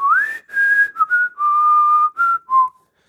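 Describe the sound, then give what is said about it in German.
A person whistles a short melodic tune, six or seven clear sustained notes gliding between pitches over about three seconds, with brief gaps between phrases and no talking. “Ich kann jetzt mit meiner Zahnspange schlecht pfeifen, aber du kannst sicher, sicher wunderbar pfeifen.”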